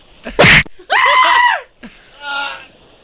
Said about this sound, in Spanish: Aquí los golpes se oyen, no se sienten.